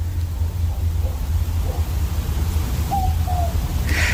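A southern boobook owl, also called a mopoke, gives a soft, hollow two-note 'boo-book' call, with fainter earlier hoots, in the hills of the Dandenong Ranges east of Melbourne, Australia, where it is very still. A steady low rumble of wind or background noise runs throughout.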